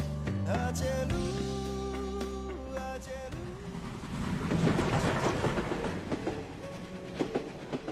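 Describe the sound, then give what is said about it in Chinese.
A train travelling from Kunming to Fujian rolls along rails: a steady, loud rumble with scattered clacking beats, and sustained metallic whining tones early on that fade as the rattling noise swells midway. No one speaks. “从昆明回福建的火车上，我在报纸上看到了一则新闻故事。”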